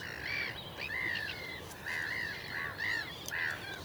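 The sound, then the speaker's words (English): A corncrake calls from long grass and cow parsley at the edge of a field, with harsh, rasping, repeated notes in a steady rhythm, clear over a low background hiss, with no voices. “I can hear a crake.”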